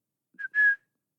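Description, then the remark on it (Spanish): A person whistles two quick notes, a brief chirp followed by a slightly longer, steady tone, heard alone, like someone whistling to get attention. “De pronto nos cuenta, eh, en una esquina, como de la hierba, digamos, alguien le chifla.”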